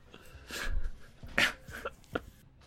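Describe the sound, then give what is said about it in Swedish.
A dog whimpers and lets out a few short barks, fairly quiet, with high whiny sounds broken up by brief sharp yelps and no one talking. “Hade du med dig den hunden? Han är väl, han är väl här, tänker jag.”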